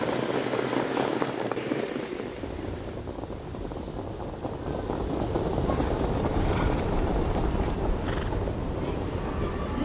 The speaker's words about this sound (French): ce que vous entendez, ce sont des sabots qui cognent sur le sol noir en terre battue de l'hippodrome de Vincennes théâtre d'une course mythique, le Grand Prix de Paris.